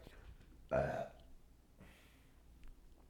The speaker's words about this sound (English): for all you new listeners, burping is one of the main things on this podcast. It's one of my main problems in life.